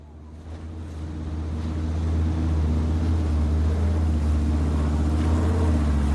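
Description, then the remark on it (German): A small boat's engine drones steadily as a biologist motors into the bay in Glacier Bay National Park, Alaska, its low throbbing hum swelling slightly louder over the first seconds, with a wash of wind and water noise around it. “eine Biologin, wie sie mit einem kleinen Boot in die Bucht fährt.”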